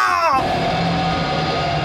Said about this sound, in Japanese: やられるその瞬間ずシーンという地鳴りが起きたついでガオーといううなり声うわなんじゃありゃ